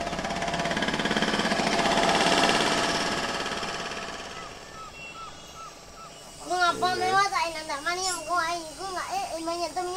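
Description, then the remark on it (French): A helicopter's broad roar over the rainforest swells and then fades away over several seconds, after which loud, wavering calls ring out. “Le bruit des hélicoptères couvre les sons habituels de la forêt, les chants des oiseaux, le bruit des batraciens, les bruissements de la terre”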